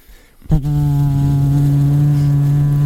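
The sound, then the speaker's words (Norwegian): A voice imitates an electric fan with a steady, low buzzing hum that starts suddenly after a brief quiet moment and holds at an even pitch and loudness until the end. “Men, men en bra jeg kan lage seg viftelyd for deg.”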